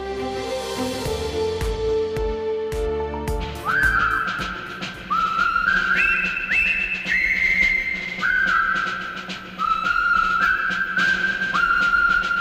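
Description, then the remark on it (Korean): A bright whistled march tune, the Colonel Bogey March from the 1957 film The Bridge on the River Kwai, enters after a short instrumental intro, repeating its jaunty phrases in crisp rhythm over steady backing music, loud with no talking. “(1957년) 영화 화이강의 다리에 등장한 보기대령 행진곡 힘찬 휘파람 소리가 인상적이죠.”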